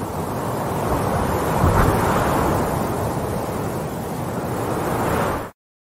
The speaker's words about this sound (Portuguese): Toma o vento aí.